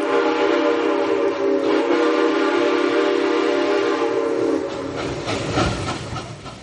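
A loud, sustained train whistle blares with steady harmonic tones for several seconds, then fades into the rumbling clatter of a rolling train. No one speaks.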